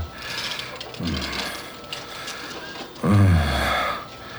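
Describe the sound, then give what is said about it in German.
A copier grinds and strains on a paper jam while scanning documents, its steady mechanical whir broken by two heavier, labored surges, moderately loud, with no voices. “Es hört sich so an, als hättest du es mit einem Papierstau zu tun.”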